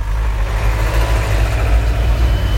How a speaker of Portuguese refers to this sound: E vocês estão ouvindo aqui os carros passar, né? Tô gravando podcast na rua.